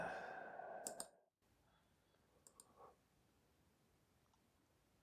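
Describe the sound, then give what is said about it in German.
A few sharp mouse clicks spaced irregularly, some in quick pairs, against a quiet background, with a soft breathy sigh near the start, as tabs in a web browser are being closed. “Das Klicken, das du hörst, ist das Schließen von irgendwelchen Tabs im Browser.”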